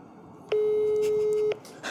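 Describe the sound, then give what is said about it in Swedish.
One steady telephone ringback tone plays over a speakerphone while a mobile phone is being called, lasting about a second: a single flat beep with faint clicks at its start and end against a low background hiss. “ringer, jag ringer. Vi måste ju ha högtalare. Ring mobil, högtalare.”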